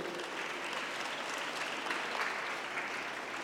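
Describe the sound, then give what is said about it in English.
Steady applause after the word samosa is mentioned, a dense wash of many hands clapping at an even loudness for several seconds, with no voices standing out. “The moment he heard samosa, he is clapping it.”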